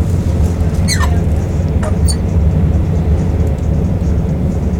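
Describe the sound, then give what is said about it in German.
A train rushing through a tunnel makes a loud, steady, deep roar that never lets up, with two brief high-pitched squeals cutting through the rumble. No one speaks. “Das ist massiv unangenehm. Tunnel. Boah. Dieser Zug ist nicht gebaut für Tunnel.”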